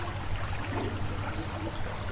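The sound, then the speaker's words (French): A steady, continuous rush of flowing river water in summer, at a spot where a boat is launched, with an even texture throughout, a low droning hum running underneath, and no voices. “Et donc on entend le fil de l'eau.”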